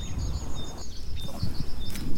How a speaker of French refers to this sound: il binait son potager et on entendait bien le chant printanier des oiseaux.